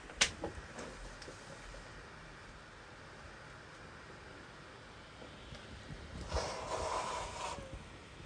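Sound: nose blowing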